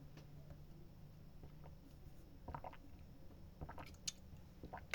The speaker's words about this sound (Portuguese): Calma aí que eu vou tomar uma água.